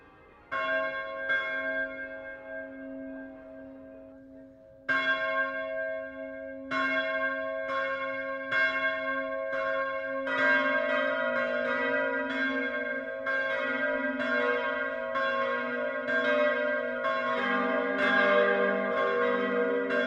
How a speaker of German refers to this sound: Auch im östlichsten Niederbayern läuten heute viele Glocken die Weihnacht ein. Wir hören ein insgesamt 6,6 Tonnen schweres Plenum. Alle sechs Glocken hängen im granitverkleideten Turm der katholischen Pfarrkirche St. Konrad im Passauer Stadtteil